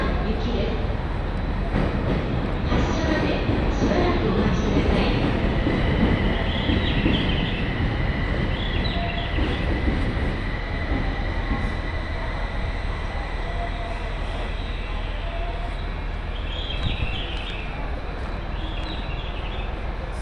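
A Joban Line train running from Sendai toward Hamayoshida rumbles steadily along for the whole stretch, a dense low roar with rattling wheel noise and a faint high whine holding underneath, with occasional chirps above it.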